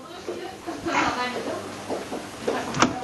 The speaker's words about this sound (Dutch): Ik zet even de deur dicht.